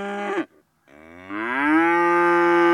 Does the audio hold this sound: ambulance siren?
no